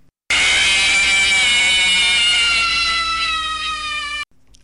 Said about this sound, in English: Remember when I said I wouldn't put the Five Nights at Freddy's scream in?